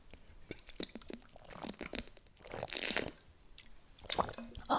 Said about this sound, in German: Hm, nächstes Thema. Vorher Schluck Wasser.